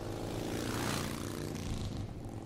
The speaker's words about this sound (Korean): 난 오토바이를 몰고 곧장 바다로 달려갔다.